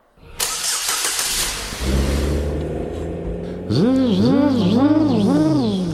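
A car engine cranks with a harsh whirring burst, catches and settles into a steady low idle, then revs up and down in rising and falling surges, fairly loud.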